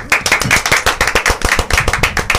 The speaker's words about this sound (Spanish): Bienvenidos a Rumba 98.5. Aplausos.